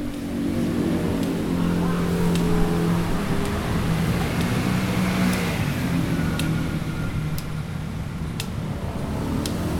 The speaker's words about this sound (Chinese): 你感受到了从听觉上车水马龙的声音，这样来来回回的车声了，对不对？